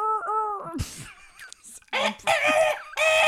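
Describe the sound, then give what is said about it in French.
A person vocally imitates a dinosaur by imitating a bird, starting with a wavering, rising squawk, then breaking into loud, raspy, clucking screeches in bursts, fairly loud, like an exaggerated chicken call. “Donc, euh, si on veut imiter un dinosaure, imiter un oiseau, c'est sûrement ce qui s'en rapproche le plus.”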